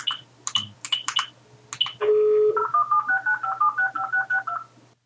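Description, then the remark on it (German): A few short keypad blips, then a steady phone tone, followed by a quick run of about a dozen evenly spaced touch-tone dialing beeps as someone places a phone call, clear, with no talking. “Warte, warte, ich rufe ihn an, ich rufe ihn an.”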